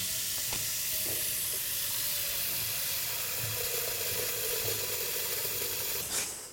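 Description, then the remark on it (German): Minced meat with tomato paste, seasoned with salt and pepper, sizzles steadily in a pan, a dense, continuous crackling hiss with faint scraping stirs and a short clatter near the end; no one speaks. “So, okay, also wir haben jetzt hier in der Zwischenzeit das, ne, das Fleisch reingemacht, ja. die Tomatenpaste, wir haben ein bisschen gewürzt mit Salz und Pfeffer und äh, jetzt lassen wir das so ein bisschen warm ja.”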